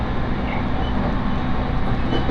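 Steady rumbling interior of a moving commuter train on the Tohoku Main Line between Sendai and Kogota, Japan, a dense low-frequency drone with continuous wheel and motor noise at constant loudness, no voices.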